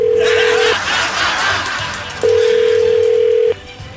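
A telephone ringing tone sounds twice as a call is placed to a man's wife, long, steady mid-pitched beeps separated by a pause, with murmuring background noise and faint laughter underneath.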